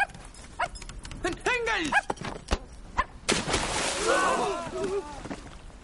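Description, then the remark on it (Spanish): A dog barks and yelps in short, excited bursts as it is grabbed on the ocean and a briefcase is dropped into the water, amid sharp knocks and a rushing, splashing commotion as rowers row and a submarine submerges, with voices mixed in the clamor. “Para coger al perro, suelta el maletín, que se hunde en el océano.”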